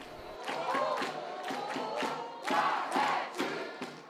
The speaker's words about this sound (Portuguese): Alguns têm até grito de guerra para o final.